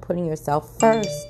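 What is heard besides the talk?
phone notification sound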